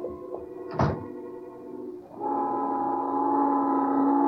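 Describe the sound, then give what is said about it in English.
A door slams once with a sharp, loud bang early on as two people rush out, then a steady, droning tone, a noon whistle blowing somewhere in New York, rises and holds to the end. No one speaks. “and finally, the pair of them flying out the door.”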